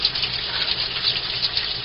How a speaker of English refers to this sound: It's raining.